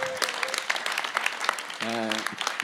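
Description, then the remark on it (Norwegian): The audience at a band Live at Studentforum in Trondheim claps steadily throughout, a dense crackle of many hands, with a brief voiced shout or whoop rising out of the applause near the end. “Ta en applaus for det.”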